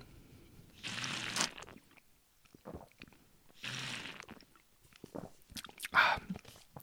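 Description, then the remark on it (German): Drinking water from a screw-top drinking vessel: two noisy, breathy sips a few seconds apart, followed by soft wet clicks, swallows and small mouth sounds, with no talking. “Jetzt aktiviere ich mal den Pott und mhm. trinke.”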